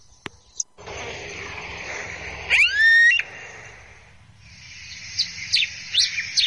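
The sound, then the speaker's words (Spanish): A red-crested finch (brasita de fuego) sings over a steady hiss of outdoor background noise: first a loud, clear rising whistle, then a run of short, sharp chirps repeated toward the end. “Esta es una bracita.”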